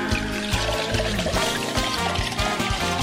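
Cachaça glugs steadily from a bottle for about three seconds, a continuous pour with bubbling, resonant gurgles at a fairly even, moderate loudness and no voices.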